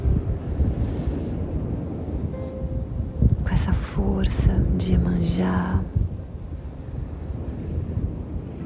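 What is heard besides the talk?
ocean waves and wind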